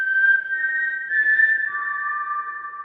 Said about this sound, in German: Genau, auch in der Hunger Games Filmreihe ist das Pfeifen dieser vier Noten, die hier sogar noch ähnlich klingen, ein Symbol des Widerstandes.